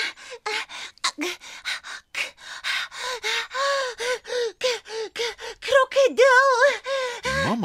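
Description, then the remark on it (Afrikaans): A voice acts out panting and gasping for breath, with a rapid string of short, voiced, breathy gasps, fairly loud. The gasps grow more strained toward the end. “… hyg en snak na asem.”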